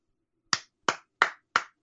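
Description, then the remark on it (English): A single pair of hands claps five times in a steady, evenly spaced rhythm, each clap sharp and bright with a quick decay, with silence between and no voices. “You're applauding me because you successfully communicated to me your vision”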